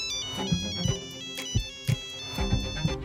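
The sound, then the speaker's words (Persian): A mobile phone ringtone ringing at exactly half past three, a bright electronic melody of sustained tones over a rhythmic low thumping beat, fairly loud, with no voices. “یه چشم به ساعت رأس ساعت سه نیم گوشی زنگ خورد”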